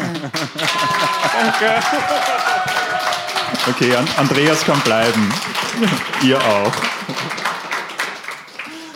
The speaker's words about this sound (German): Ein Applaus reicht eh. ähm, wir, sind, wir haben noch nie Applaus bekommen. Äh, Können wir eine Runde Applaus haben, bitte? Danke.